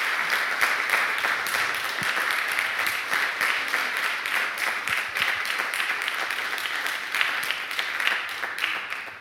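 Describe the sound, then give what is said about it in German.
Steady applause from an audience, a dense crackle of many hands clapping at an even level for the whole stretch, with no voices rising above it. “Danke für den netten Applaus”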